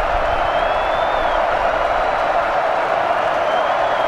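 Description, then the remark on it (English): A huge stadium crowd at an American football game roars loudly and continuously before a third-and-12 play, a dense, steady wall of cheering from many voices that never lets up across the few seconds. “This crowd in full throat.”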